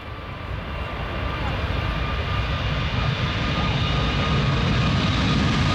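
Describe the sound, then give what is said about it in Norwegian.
A passenger airplane drones steadily overhead, a loud, continuous engine roar with a faint whine that swells slightly over a few seconds. “det du, du er lager passasjerfly”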